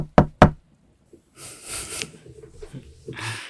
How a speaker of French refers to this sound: quand soudain, on tape à la porte de la chambre. D'abord un coup, puis trois autres.